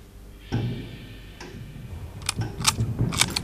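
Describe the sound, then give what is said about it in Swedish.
The shutter of an expensive German Robot-brand camera clicks, then clicks again a moment later, followed by a quick run of ratcheting clicks as the film advances, with no voices. “Det var en dyr tysk kamera av märket Robot som jag anförtrotts och en liten Minox som fick plats i mitt stövelskaft.”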